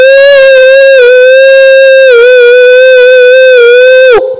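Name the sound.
voice imitating a howl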